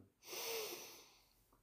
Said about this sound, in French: une fois que vous aurez pris cette grande respiration comme euh